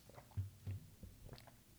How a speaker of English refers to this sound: Sorry, I took a sip of water.